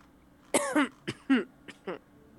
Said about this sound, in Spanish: Perdón, me estoy ahogando nada más de recordar.